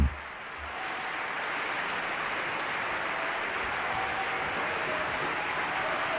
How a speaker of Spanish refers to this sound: Están aquí saludando los artistas, escuchen la ovación que reciben en la sala principal del Teatro Colón.